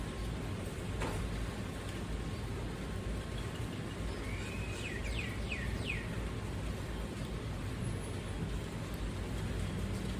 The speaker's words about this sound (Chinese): 你有办法认出这是什么鸟的声音吗？我听久习惯了哈，我认得出来这是八哥的声音。